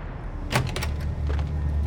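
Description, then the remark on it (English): Kugler's office door swings open as several Nazi officers stride in, a quick pair of wooden clunks and a rattle of the latch, then a softer knock follows over a low, steady rumble. “It was enough to lull Kugler into a false sense of security right until the door swung open and several Nazi officers strode into his office.”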